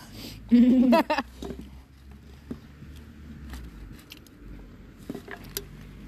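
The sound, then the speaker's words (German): Sporadic crinkling and rustling of an aluminium foil wrapper around a döner being eaten, in short, scattered bursts over a low background rumble, with a brief voice sound near the start. “Und das Geraschel vom Alu.”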